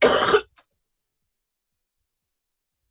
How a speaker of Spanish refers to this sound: Una buena tos.